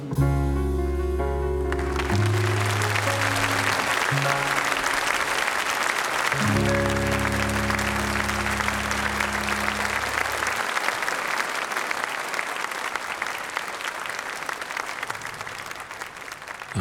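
A theatre audience applauds loudly and steadily throughout a 1970 recording from a solo theatre programme. The dense clapping continues after a few sustained low closing chords of a song ring out under it and fade away.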